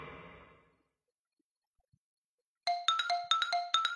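A faint murmur fades into near silence, then a phone alarm suddenly starts ringing: a loud, bright electronic tune of quick, repeating beeps jumping between a few high pitches in a steady rhythm.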